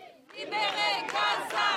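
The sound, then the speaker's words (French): A protest crowd at a banned demonstration in France, voicing concern for the people of Gaza, shouts in unison, loud rhythmic chanting voices rising after a brief quiet start and continuing in sustained bursts. “Pas de quoi décourager ceux venus crier leur inquiétude pour le peuple gazaoui.”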